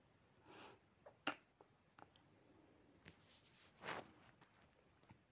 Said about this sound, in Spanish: Madre mía, yo no sé lo que le pasará a esta gata. Ha hecho un ruido que, he tenido que parar y todo, ¿eh? No sé yo este ruido. Ha sido mi gata. Ha abierto la boca y ha hecho un ruido